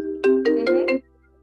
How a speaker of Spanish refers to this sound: disculpa. Perdón, una, pequeña, llamada de un celular que tengo conectado aquí, al parecer.